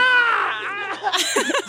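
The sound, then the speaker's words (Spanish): A child outside wails and shrieks in high, strained bursts, the pitch wavering up and down as the cries break into short, sobbing pieces, fairly loud and without any speech. “Dios nos mandó la bendición de un niño llorando afuera”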